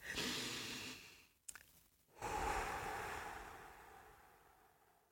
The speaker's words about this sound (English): listen to this and really, really just take a moment, take a deep breath before I start.